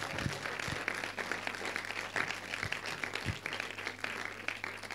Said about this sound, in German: Hey, ihr dürft ihnen gerne mal einen Applaus geben, die da mitgebetet haben.